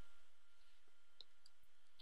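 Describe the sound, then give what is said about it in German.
A few soft, sharp computer mouse clicks tick out at irregular intervals as a video link is pasted into a web article and the Update button is clicked, against a quiet, faintly hissing background, low in volume, with no one speaking. “kopiere jetzt nur die einfache YouTube-URL in den Artikel rein, klicke auf Aktualisieren”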